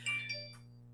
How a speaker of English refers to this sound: sorry that was my phone that's stupid of me not putting it into silent sheesh